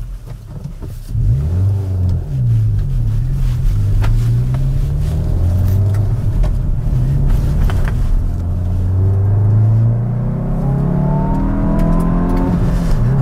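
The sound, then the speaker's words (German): A turbocharged 1.6-litre four-cylinder car engine with variable valve lift, in an E20N with N mode activated, revs up and down repeatedly, its pitch rising and falling in strong sweeps over a steady rumble, with no talking. “Das ist ein Vierzylindermotor, 1,6 Liter mit variablem Ventilhub und mit einem Turbolader.”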